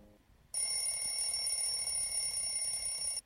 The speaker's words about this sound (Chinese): 闹钟响了，但是大老鼠和小老鼠谁也没有听见，因为他俩都睡得太香了。